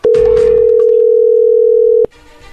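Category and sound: signal or alarm, telephone dial tone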